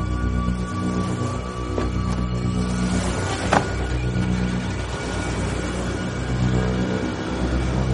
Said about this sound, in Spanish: Macris se marcha en su coche.